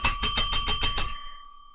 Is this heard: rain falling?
no